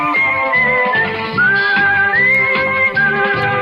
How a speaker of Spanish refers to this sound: No, era el silbido. La del silbido. Había una solo del silbido.